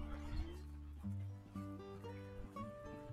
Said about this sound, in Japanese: 今ね、あの、おじさんが柴犬2匹散歩させてたんで、させてたんですが